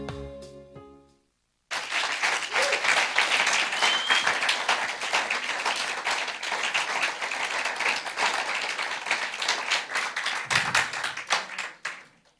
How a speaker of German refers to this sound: Also für einen fränkischen Applaus war es schon mal nicht schlecht